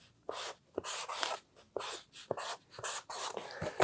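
Someone writes the divine covenant name Yahweh by hand in Hebrew, a series of short, scratchy pen strokes in quick irregular bursts with brief pauses between, fairly quiet, with no talking.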